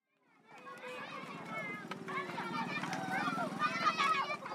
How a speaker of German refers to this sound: Auf dem Viehmarkt der malischen Hauptstadt Bamako im Südwesten des riesigen Landes spielen Kinder zwischen Schafen und Kühen.